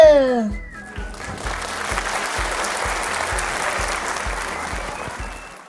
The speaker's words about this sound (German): Einen Applaus bitte.